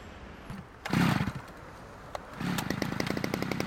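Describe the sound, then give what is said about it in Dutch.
A chainsaw cutting down a tree sputters in a short loud burst, goes quiet, then revs up again into a steady, rapidly pulsing buzz with a harsh, raspy edge. No voices are heard. “Zagen alsjeblieft die boom.”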